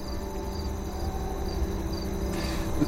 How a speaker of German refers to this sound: Was hörst du? Den Wind? Woher weißt du, dass es Wind ist? Weil ich ihn fühlen kann. Und weil ich ihn höre.